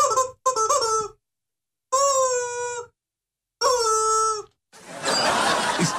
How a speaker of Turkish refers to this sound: Abi şu ördek sesini veriyorsun şarkı arasında. İstemsiz gülüyorum. Çok komik oluyor demiş efendim.